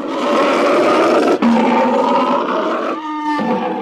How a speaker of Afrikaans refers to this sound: Dankie, jy regtig, jy maak my bang, roep hy en brul nog harder as leeu.